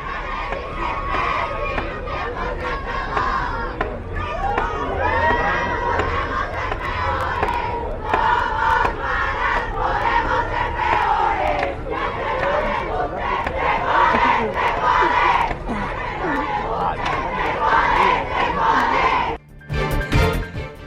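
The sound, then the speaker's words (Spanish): A large crowd of feminist collectives protests in front of the Palacio Nacional, demanding justice for the femicides of Ingrid Escamilla and Fátima, shouting and chanting continuously, a dense roar of many raised voices with rising and falling cries. The din stays loud throughout and drops off briefly near the end. “Esta mañana, colectivos feministas se congregaron de nueva cuenta frente a Palacio Nacional para exigir justicia por los feminicidios de Ingrid Escamilla y de Fátima.”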